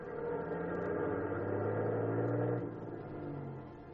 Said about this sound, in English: The truck roared down Burr Street, switched off to the main highway, and tore along doing 70.